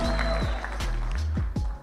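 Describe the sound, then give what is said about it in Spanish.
A loud crowd cheers and shouts, several voices whooping over a steady wash of clapping and noise that keeps up for the whole couple of seconds. “Para usted dirá, ¿y qué tiene que ver el aplauso y la gritería?”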